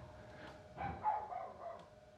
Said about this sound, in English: There's a dog barking outside now. Do you think he's chasing the seagull?